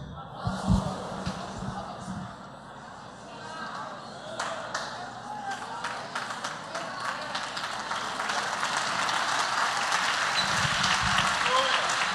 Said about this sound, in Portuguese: Forte esse aplauso ao Senhor.